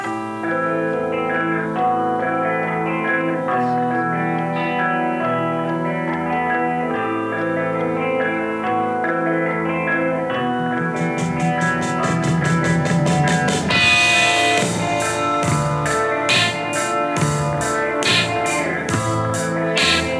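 The instrumental basic track from the start of a song: steady, slightly distorted electric guitar chords, joined about halfway through by drums, whose crisp cymbal and snare hits mark a regular beat. No voices are heard.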